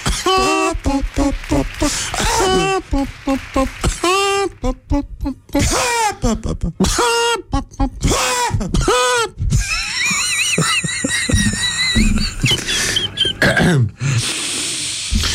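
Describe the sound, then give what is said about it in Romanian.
A string of loud, forced "chicken coughs", done as part of a breathing exercise, comes in quick bursts, mixed with strained voiced sounds and a high, squealing vocal stretch toward the end. “Și încă o dată încă o tuse de găină, te rog Hai că e simplu”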